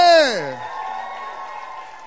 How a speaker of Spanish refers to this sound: ¿Cuántos aplauden a nuestro todopoderoso Dios? Qué lindo ese grito de júbilo. Otro más fuerte.